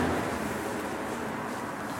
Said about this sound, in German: Ich müsste mich jetzt eigentlich wieder bei euch für die Autos entschuldigen